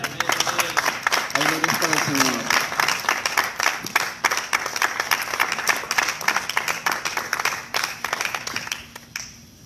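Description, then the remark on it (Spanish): Sustained, loud applause from a crowd, given to the Lord, dense rapid clapping filling nearly ten seconds, with voices audible underneath before it tapers off at the end. “Dale nuevamente ese fuerte aplauso al Señor, porque tenemos de nada la victoria.”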